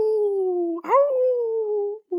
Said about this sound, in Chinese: 忽然，从远远的地方传来一阵叫声，是狼来了。